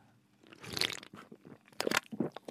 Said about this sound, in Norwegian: slurper det i seg, og jeg eh, drikker som en dannet mann